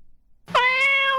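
After a short silence, a white-furred cat named Qiuqiu lets out one long, loud meow that holds a steady, bright pitch, rich in overtones, and carries on until the sound cuts off.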